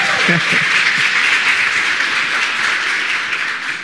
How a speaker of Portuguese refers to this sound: Uma salva de palmas para eles que estão nos visitando.